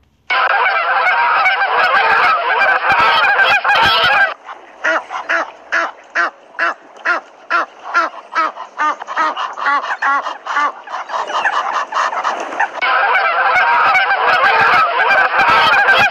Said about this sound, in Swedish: När gässen fick syn på den gamla gumman flaxade hon med vingarna och sträckte på halsarna, sprang henne till mötes och ropade